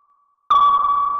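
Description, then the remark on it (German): A single sharp submarine sonar ping strikes suddenly after a faint tone, then rings on with a bright, sustained metallic tail. Loud, no voices present. “Und er hörte das Sonar vom U-Boot.”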